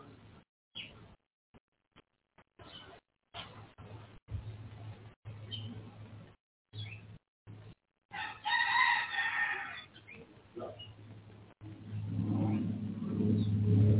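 A rooster crows loudly partway through, a drawn-out, strained call, set against a steady low rumble like passing traffic, with the sound cutting in and out choppily beforehand.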